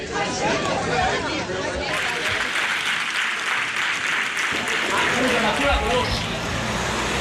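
Neighbours on their balconies clap and cheer steadily for several seconds, celebrating a girl from the neighbourhood who has returned home. Dense applause is mixed with scattered shouts and voices, loud throughout with no pauses.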